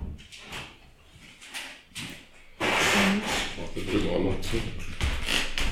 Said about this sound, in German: Du, ich habe eine Frage und zwar können wir das Fenster vielleicht zumachen? Wegen der Wegen der, ja, wegen der S-Bahn.